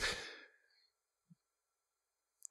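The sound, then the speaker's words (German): A single sneeze, a sharp breathy burst that trails off within a second, followed by near silence and a couple of faint clicks. “Gesundheit.”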